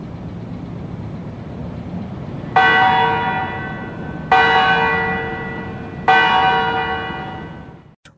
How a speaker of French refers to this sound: Alors, c'est les cloches euh, de la tour centrale du Parlement qu'on entend,